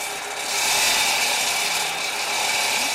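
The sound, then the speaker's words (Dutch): An angle grinder runs continuously, a loud, harsh, high-pitched grinding whine with a steady tone that holds for the full three seconds without pause, and no voices. “Ik kan niet nadenken met die fucking slijpschijf.”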